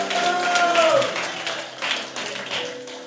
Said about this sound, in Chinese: 掌声